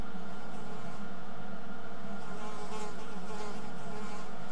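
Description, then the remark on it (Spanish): A housefly on the control panel inside an aircraft buzzes steadily, its thin droning hum wavering slightly in pitch, with no talking over it. “Hay una mosca sobre el cuadro de mandos.”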